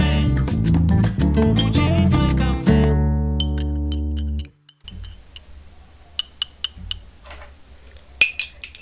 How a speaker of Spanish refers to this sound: Así, así está hoy este cafecito informativo que estoy terminando de revolver para refrescar con la cucharita y del que me voy a dar inmediatamente el primer sorbito del día.